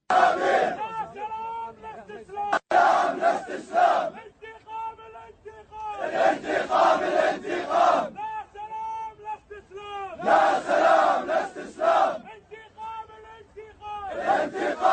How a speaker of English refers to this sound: And now there are protests all over the place. Listen to these protests. These are Muslims in Kuwait. Take a listen.